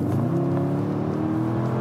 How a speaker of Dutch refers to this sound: Nou, dit is de turbo. V8 eh, bi-turbo onder de kap. Knalt er 550 pk uit. Maximum koppel 500 Nm Top van ruim 300 km per uur. Van 0 tot 100 in 3,8 seconden.